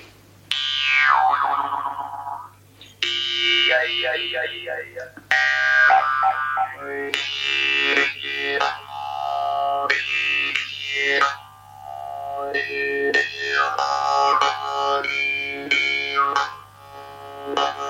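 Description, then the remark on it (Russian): A Yakut khomus, a folk instrument of hardened steel, plays loud, twanging with wobbling, sweeping boing-like tones over a steady low drone, broken by a few short pauses, with no voices. “И вот я хочу немножко поделиться вот, э, звучанием вот этого уникального народного инструмента – его космическими звуками, если позволите.”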